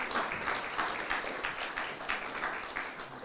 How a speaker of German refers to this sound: Und ich würde mal sagen, lasst uns mal einen richtig fetten Applaus unserem Herrn geben, oder? Gott gebührt alle Ehre.